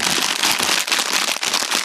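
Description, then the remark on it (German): Dense, steady crackling and rustling of a gift bag being opened and rummaged through while unpacking the first present, which holds Ritter Sport Gin chocolate, bright and loud throughout with brief dips. “oh, ich habe oh, ich hab eine Tüte”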